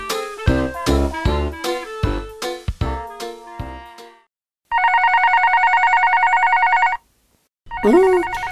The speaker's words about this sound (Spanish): Otra vez el teléfono rojo. Ay, ay, ay, A ver, atenderé.